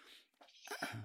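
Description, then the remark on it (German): A single sneeze: a breathy intake followed by a sudden, forceful burst of noise, loud and on its own with no talking. “Gesundheit, mein Schatzi,”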